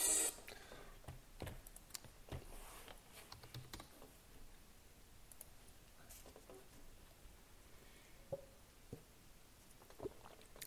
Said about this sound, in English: Excuse me, I'm sitting here clicking.